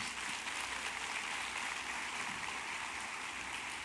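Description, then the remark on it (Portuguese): A crowd applauds steadily, a dense wash of many hands clapping at once that holds at an even level for a few seconds, with no voices heard over it. “Pode aplaudir, irmão.”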